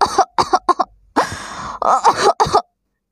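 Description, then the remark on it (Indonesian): A voice imitates an echidna's coughing fit after it inhales poisonous pollen from a zizyphus tree: a quick run of short, harsh coughs, a brief pause, then a longer strained, rasping burst ending in a final cough, fairly loud. “Ia mendadak terbatuk-batuk lalu terjatuh sambil memegang dadanya.”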